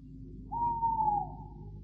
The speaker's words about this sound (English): Has it ever occurred to you, Cannon, that an owl chooses the oddest place in which to conduct his romantic exploits?